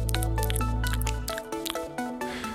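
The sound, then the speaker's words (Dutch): Wet, sticky mouth smacks and clicks of the kind made while speaking, in quick irregular succession, fairly loud, with a low hum underneath for the first half; no words spoken. “En daarmee bedoelen we meestal kleine, plakkerige smakgeluidjes die ontstaan bij het spreken.”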